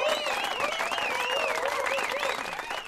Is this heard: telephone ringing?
no